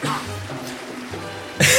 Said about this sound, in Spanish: eso fue, eso fue corno tosiendo y no hay que editar eso, no lo edité.